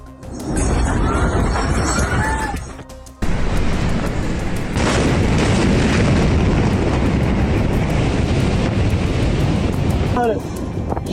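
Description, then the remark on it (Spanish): A massive explosion at the port of Beirut, Lebanon, on 4 August: a sudden blast gives way to a loud, sustained rumbling roar with wind-like noise, while voices cry out faintly at the start and end. “Este martes 11 de agosto se cumple una semana de la devastadora explosión en Beirut el pasado 4 de este mes, el mundo se estremecía al ver las impresionantes imágenes de una masiva explosión en pleno puerto de la capital del Líbano.”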